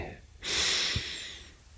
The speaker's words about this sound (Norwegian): mm, puste litt.